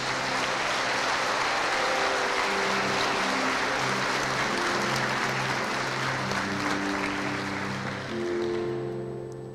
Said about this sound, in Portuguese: Se você crê nisso, dê um forte aplauso a Jesus.